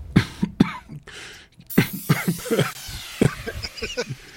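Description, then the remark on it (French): A fit of repeated coughing: a few sharp coughs, a brief pause, then a longer run of harsh, uneven coughs and throat-clearing bursts. “La lettre R, je vais tousser, attention.”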